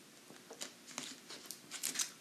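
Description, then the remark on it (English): Someone takes quiet sips of water, a few soft slurping, wet mouth sounds spaced irregularly over a couple of seconds, with no talking. “Just took a sip of water uh, maybe help with that.”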